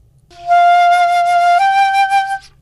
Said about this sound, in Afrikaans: As ek nou een noot speel op my gewone fluit, sal dit nou so klink.